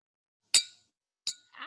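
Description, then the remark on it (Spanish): Two bright glass clinks about three-quarters of a second apart, like champagne glasses touching in a toast, each ringing briefly before fading, with a faint rustle after the second. “si una de champán. Salud.”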